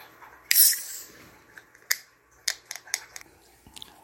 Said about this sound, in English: Got myself a um, grapefruit flavored bubbly sparkling sparkling water here and my throat's a bit dry so i'm just gonna have some of that